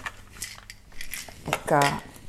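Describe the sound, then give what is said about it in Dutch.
Several light clinks and knocks of glass and crockery as a glass is taken from a cupboard to make tea, with a brief burst of speech-like voice near the end. “Weet je wel, zo onnodig om herrie te maken en dan doe ik het gewoon met een glas.”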